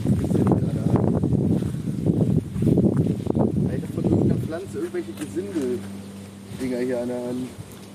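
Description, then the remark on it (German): Wind buffets the microphone with a steady low rumble beneath people talking outdoors, continuing through a quieter stretch where a few tonal calls drift in. “Ich glaube, man hört uns auch kaum reden, weil es windet ein wenig.”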